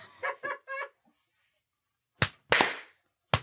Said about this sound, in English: We should clap. Make a clap. We should pick a time and then clap.